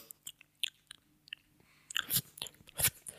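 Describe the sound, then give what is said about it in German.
Wet lip smacking and mouth clicks right up against a sensitive microphone, a scatter of sharp little pops that thicken into louder, smeary smacks toward the end, with no talking. “Naja, oder, oder, warum, warum der nicht seine Fresse von dem Mikro wegnehmen kann und woanders schmatzt.”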